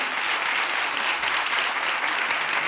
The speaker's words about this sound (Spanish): Así que yo quiero un aplauso para ella, por favor.